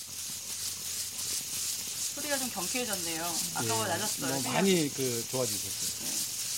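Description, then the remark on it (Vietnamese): Steady crackling and sizzling of coffee beans being stirred by hand in a hot roasting pan runs throughout, the beans popping, with a person speaking over it for most of the second half. “Càng về sau, khi đã quen tay dần, âm thanh phát ra theo nhịp tay đảo cà phê cũng nhịp nhàng hơn, mùi vị đặc trưng của cà phê bắt đầu lan tỏa.”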